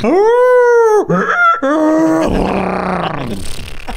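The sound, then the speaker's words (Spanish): A person vocally imitates a monstrous beast: a loud, sustained howl, then two short yelping cries, sliding into a rough, raspy bray-like whinny that fades out. “haber escuchado los horripilantes gritos de la bestia durante toda la noche descritos como una mezcla entre un ladrido apagado de un perro con los chillidos de un burro y los relinchos de un caballo, güey.”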